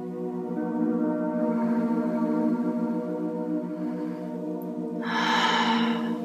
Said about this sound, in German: Und wir atmen noch dreimal ein und aus.